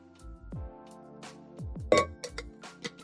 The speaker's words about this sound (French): Oh, pardon pour les bruits, les amis, j'ai pas l'habitude d'avoir des accoudoirs sur mon fauteuil.